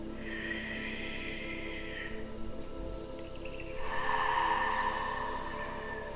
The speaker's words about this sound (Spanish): El sonido de tu exhalación es agradable, desagradable. Piensa por un momento que es el sonido de la respiración de otra persona. ¿Lo toleras?